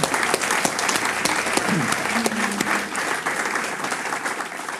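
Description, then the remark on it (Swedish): An audience applauds steadily for several seconds for the man running the production from behind a metal door, who hears them on headphones; a dense, even patter of many hands clapping at once, with a brief faint voice or whistle-like tone surfacing midway. “Så vi ger en applåd för han hör oss i hörlurarna.”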